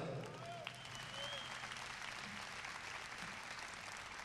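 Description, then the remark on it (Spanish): Steady applause from an audience welcoming the performers, a dense wash of many hands clapping at an even level throughout, with faint voices mixed in underneath. “Es lindo que nos reciban con un aplauso.”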